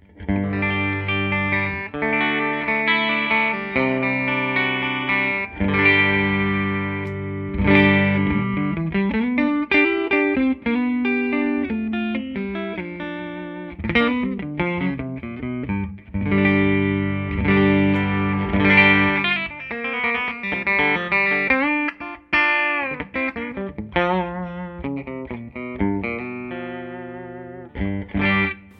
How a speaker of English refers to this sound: so I have a Whitfill Strat. Um, this one is, uh, it's kind of, um, not sure exactly what year Charles modeled it after. It's modeled after an older vintage Strat, so it is a little brighter. The pickups aren't super hot. They are a little brighter.